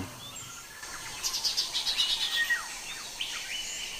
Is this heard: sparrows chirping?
yes